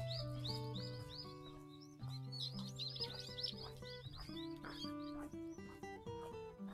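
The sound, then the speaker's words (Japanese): A busy chorus of birds chirps and twitters nonstop for several seconds, bright and fairly prominent, layered over a steady sustained tonal backdrop with no one talking, heard outdoors during a walk on a quite cold day. “鳥の声って聞こえますかねすごい泣いてるんですけど。”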